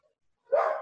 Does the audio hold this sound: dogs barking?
yes